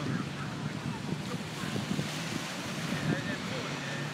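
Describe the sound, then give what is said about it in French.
A steady wash of gentle surf from a calm sea with small waves at a beach, plus wind noise, continuous and fairly soft, with a faint murmur of voices in the background and no distinct wave crashes. “bon, la mer, elle est tranquille, il n'y a pas trop de vagues, c'est tranquille quoi.”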